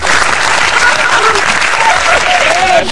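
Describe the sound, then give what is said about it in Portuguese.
Sustained, loud applause from a crowd, a dense steady wash of clapping throughout, with faint voices mixed in, cutting off abruptly at the end. “Mais palmas, né?”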